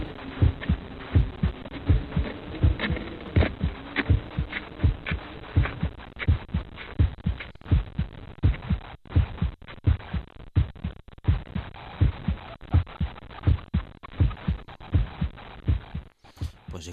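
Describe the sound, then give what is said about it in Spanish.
A steady human heartbeat thumps in a regular lub-dub rhythm, muffled, with a low background hum, wind in the background during the first part, and no talking. “tiene ruido la grabación, ahí se escuchaba claramente el sonido de nuestro corazón, ese ritmo inconfundible, y también había viento detrás en la primera una parte.”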